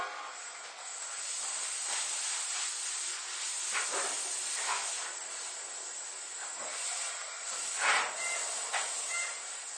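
A steady, high-pitched air hiss from an Izukyu 8000 series train, running between Izu-Kogen and Izukyu-Shimoda, runs throughout, with several brief louder bursts and surges of venting layered over it, and no voices.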